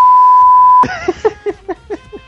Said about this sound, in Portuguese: Só pra bipar duas vezes.